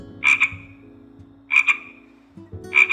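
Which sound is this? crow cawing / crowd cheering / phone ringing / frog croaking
frog croaking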